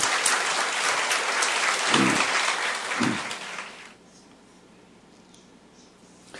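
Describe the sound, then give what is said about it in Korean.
An audience applauds for God in a dense, crackling burst of many hands clapping, lasting about four seconds before cutting off into quiet. “할렐루야 우리 하나님께 큰 박수 올려 달리십시다”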